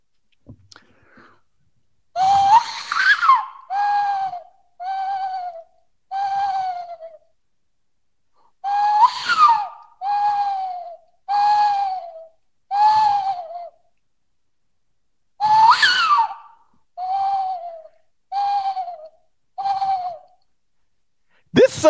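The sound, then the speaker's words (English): A person's voice imitates a western screech owl, giving three rising-then-falling bursts of hoots, each followed by a quick series of shorter descending toots, fairly loud with pauses between. “A little bit, that sounded a little bit like a western screech owl.”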